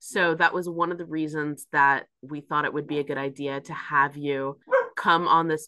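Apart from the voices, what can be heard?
dog barking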